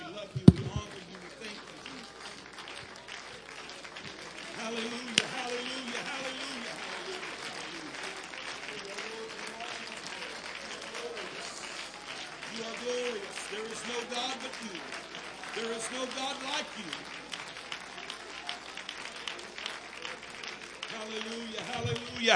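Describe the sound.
An audience at a Sunday morning worship service after Thanksgiving claps steadily for over twenty seconds in praise of God, a dense, even patter of many hands, while several voices call out and sing loosely over the applause.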